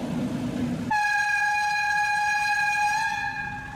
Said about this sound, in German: Der letzte fahrplanmäßige Schluff war der beliebte rote Schienenbus, den man hier auch gerne Ferkeltaxi nannte.